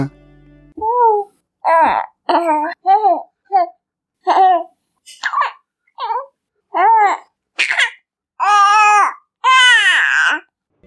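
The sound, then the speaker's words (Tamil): A little baby girl babbles in a quick string of about a dozen short, high-pitched vocal bursts that grow louder and squealier toward the end. “இப்போ முதலாவதாக இந்த ஆடியோல இந்த குட்டி குழந்தை என்ன சொல்லுது தெரியுமா அப்பா நீங்க எல்லாருக்கும் கதை சொல்லும்போது இது போல நான் சத்தம் போடாம சமத்து பாப்பாவை இருக்கேன்ப்பா அப்படின்னு சொல்றா கேப்பம்மா”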